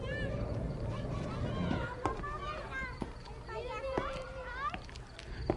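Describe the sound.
Several children shout and chatter while playing outside early in the night, their high voices overlapping, with a few sharp knocks or claps over a steady low background rumble.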